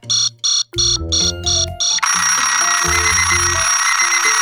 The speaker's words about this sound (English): An alarm clock is a normal clock that you can set up to make a sound at a certain time. You might use one when you want to make sure to wake up in time for school.